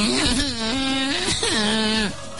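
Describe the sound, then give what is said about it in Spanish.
A human voice imitates a dog's drawn-out wail, rising and falling in two long mournful howls, loud, with no other speech, portraying a dog from a hill bawling like a calf. “Pero no había gato ni pato, era el perro del cerro berreando como un becerro.”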